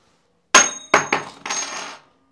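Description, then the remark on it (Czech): A coin, tossed to decide who starts a game, lands on a hard surface with a bright metallic clink, bounces twice more, then rattles and spins for about half a second before settling. No voices. “Padne pana a ty říkáš, jsou infantilně debilní a, a začíná.”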